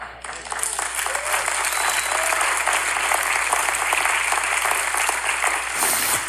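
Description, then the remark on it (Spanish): Sustained applause from a large crowd, clapping for God at a preacher's request: dense rapid clapping that stays loud and steady for several seconds before easing slightly at the end. “Cuando usted fue sano, millones de palmas hicieron así por usted.”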